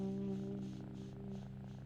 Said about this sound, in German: Nur noch die Glasscheibe zwischen uns, sein rötlich-goldenes Fell in der Abendsonne, die sanften Tatzen, der stolze Blick, das leise Schnurren.